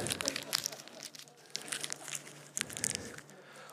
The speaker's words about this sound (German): Und so der Pastor knüllte den Schein zusammen.